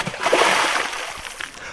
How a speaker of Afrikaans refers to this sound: Maar oupa verloor sy balans en val saam met Cassidy Ann in die dammetjie.